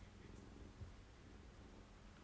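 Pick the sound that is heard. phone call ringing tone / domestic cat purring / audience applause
domestic cat purring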